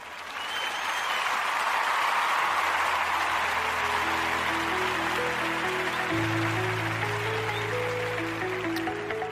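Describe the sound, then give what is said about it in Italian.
An applause sound effect: sustained applause from a crowd, a dense steady clatter of clapping lasting several seconds, with a low musical tone and a simple melodic line rising in beneath it partway through as the show's theme tune begins. “Detto questo, eh, applausini e vado in sigla.”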